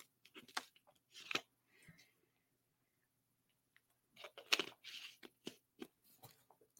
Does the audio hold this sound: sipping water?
yes